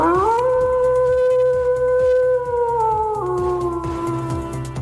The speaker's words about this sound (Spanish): Es el aullido de un lobo, sí, han escuchado bien, pese a que pensemos que esta especie es más propia de la zona norte de Palencia,